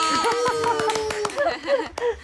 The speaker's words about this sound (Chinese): 鼓掌鼓掌鼓掌！